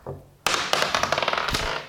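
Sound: dice rolled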